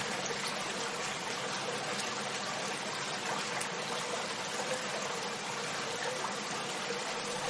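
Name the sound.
river water flowing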